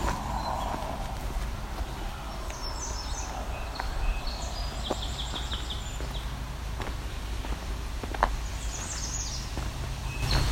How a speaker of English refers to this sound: There's a red start. It's typical one where the note isn't different.